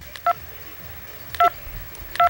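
Three short phone keypad beeps sound at uneven intervals, each a crisp two-tone blip, fairly loud against a quiet background hiss, as someone taps on a phone to read a WhatsApp message.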